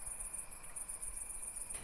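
A steady, high-pitched drone of cicadas in the countryside in the evening fills the air without pause, a continuous shimmering buzz, with no voices and only a faint low rumble beneath.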